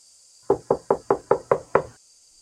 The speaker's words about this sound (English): There'll be a knock at the door.